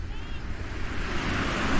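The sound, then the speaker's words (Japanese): A steady wash of ocean waves breaking on the shore of Sagami Bay, Japan, broad and rushing, swelling a little louder toward the end, with some wind noise mixed in and no clear speech. “えっと、今、目の前にまさに海が広がっていて、相模湾なんですが、波の音がだいぶ入ってると思うんですけどまさに海辺にいましてそこからお届けしています”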